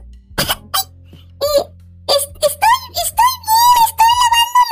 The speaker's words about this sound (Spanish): ¿Estás bien? ¿Estás bien? te, escucho, te escucho vomitar en el baño.